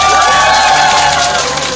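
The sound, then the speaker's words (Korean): A crowd applauds and cheers loudly to welcome Governor An, a dense wash of clapping with shouts and whoops rising above it, holding steady throughout before easing slightly at the end. “자, 안지사님을 큰 박수로 와주시기 바랍니다.”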